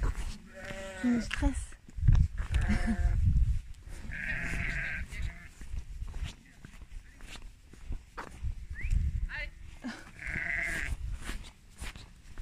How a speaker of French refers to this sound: Bon ben voilà, c'était un troupeau de moutons un troupeau de moutons qui était emmené à son enclos